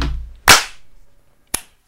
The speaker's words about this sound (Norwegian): Klappet alle der? Mm -hmm. jeg, hørte ingen. Eh, jeg hørte jeg, hørte bare min egen. Men jeg skjønner ikke, det skjer så ofte at jeg ikke hører dere når jeg klapper.